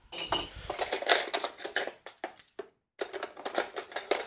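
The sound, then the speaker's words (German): Metal spoons rattle and clatter in a kitchen drawer, a dense run of bright jingling clinks that pauses briefly before the jangling picks up again. No one speaks. “Warum sind hier Löffel in der Schublade, die nicht richtig sauber sind?”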